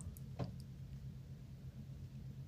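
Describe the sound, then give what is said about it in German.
Inside a car at the Am Blauen Stein motorway rest area on a Sunday afternoon: a steady low rumble fills the cabin, with a brief soft click near the start and faint ticks above, no voices. “Ich sitze an einem Sonntagnachmittag einem Auto”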